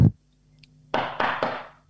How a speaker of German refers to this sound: hoffentlich, ich klopfe auf Holz. Ähm, Hat man gar nicht gehört.